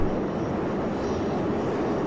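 A loud, steady jet-engine roar from a supersonic jet rolling down the runway, building up speed for takeoff. The dense rumble fills the whole clip with no pauses and no voices.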